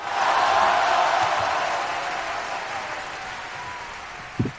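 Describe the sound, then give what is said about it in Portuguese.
A canned applause sound effect played on a Mac: a sustained burst of applause, a dense crackling wash of many hands clapping at steady loudness that slowly thins toward the end, with a brief thump just before it stops. “Palmas para o médico, peraí.”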